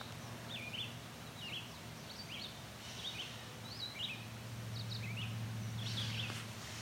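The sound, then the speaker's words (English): A gray catbird calls repeatedly, a series of short, slurred mewing notes and chirps spread over several seconds, with a low steady hum in the background and no talking. “You can hear that catbird meowing.”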